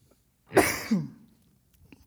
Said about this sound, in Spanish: Perdón por el ataque de tos.